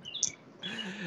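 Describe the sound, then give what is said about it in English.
A small bird chirps in quick, high-pitched bursts, a bright tweet early on followed by a busier stretch of overlapping calls, fairly faint and in the background. “Oh no, I'm just laughing because I, I hear the bird in the background.”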